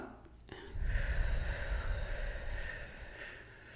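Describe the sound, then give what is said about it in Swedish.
A long, steady breath pushed out through the mouth during a breathing exercise, counting to eight after breathing in through the nose, a soft airy whoosh lasting a few seconds, moderately loud, then tapering off. “Och sen andas ut genom munnen, räkna till åtta.”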